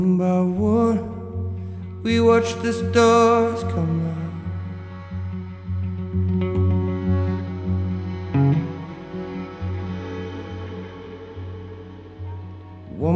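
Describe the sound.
A song plays at moderate volume, a sung vocal melody over steady low bass and sustained chords, with a brighter strummed burst of instruments near the start.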